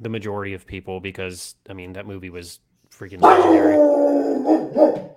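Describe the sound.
An Italian mastiff barks loudly in a drawn-out, gruff burst lasting a couple of seconds, breaking in just after a person finishes talking.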